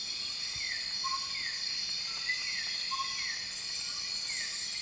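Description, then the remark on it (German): Dense, steady insect chorus with layered high-pitched buzzing and trilling, plus repeated short descending chirps and a few brief whistled notes, forming a continuous nighttime rainforest ambience with no talking. “Das ist meine Lieblingsumgebungsaufnahme. Das Spannung. ist Regenwald bei Nacht.”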